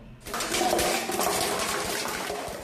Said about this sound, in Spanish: Efectivamente, voy a hacer mis gárgaras de vidrio, por favor, un momento.